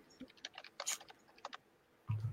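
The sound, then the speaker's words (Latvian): Quick, uneven clicks of someone typing on a computer keyboard, fairly soft, ending with a low thump. “liec to klaviatūru nost.”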